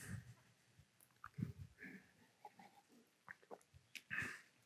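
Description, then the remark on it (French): A quiet sip of a drink: soft slurping and swallowing with small wet mouth noises and faint clicks, spread over a few seconds with no talking. “Et je vais prendre une petite gorgée.”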